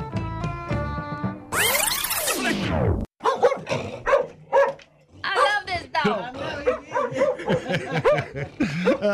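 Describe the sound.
A dog barks in short repeated bursts, mixed in with people talking and a brief burst of other noise near the start.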